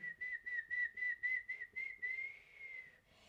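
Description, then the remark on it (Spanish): A person whistles a steady, fairly high tone in a quick series of short pulsed notes, then holds one longer sustained note before stopping. Clear, with no talking. “¿O será que eso es silbar?”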